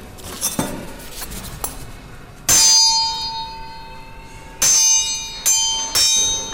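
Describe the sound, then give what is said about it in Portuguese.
A knife blade is struck four times and rings out like a bell, each clear, sustained tone lingering before the next strike, after some quieter taps and clinks. No one speaks. “Ela tem que fazer um som, um som tipo sino, não é?”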